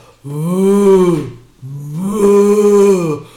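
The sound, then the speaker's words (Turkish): A person makes two drawn-out, buzzing raspberry-like noises with their mouth, imitating the fart a frightened person lets out; each lasts about a second, loud, with a short pause between. “Bak yine korkunca insanın affedersiniz götünden şöyle bir ses çıkıyor.”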